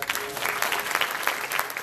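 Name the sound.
audience hand clapping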